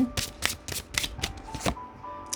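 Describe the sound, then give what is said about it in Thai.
Tarot cards being shuffled for a monthly reading, a quick run of crisp riffling bursts about every quarter second, papery and bright, with no one talking. “เอาล่ะทีนี้เรามาดูไพ่ทาโร่กันนะคะ ในเดือนนี้ไพ่ทาโร่จะบอกอะไรกับคุณ”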